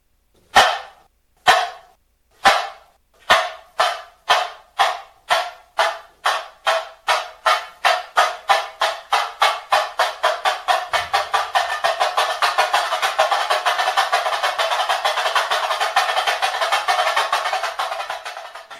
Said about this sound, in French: ou tambourine le tambouring, tout petit tambour qui produit un son aigu qui se joue avec une baguette triple lors des phrasés du samba.